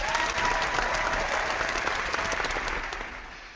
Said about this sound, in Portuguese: Então, pessoal do, do auditório, eu só peço mais uma salva de palmas para a nossa eterna melhor ouvinte do Por Falar em Corrida